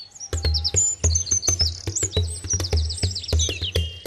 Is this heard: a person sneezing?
no